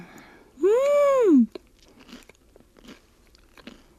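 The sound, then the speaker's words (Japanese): A long, rising-and-falling hummed "mmm" of enjoyment, followed by a few soft, irregular crunches as someone bites and chews a reheated takeout nori toast, toast sandwiched with oil-fried nori seaweed. No speech is heard. “ノリトーストです”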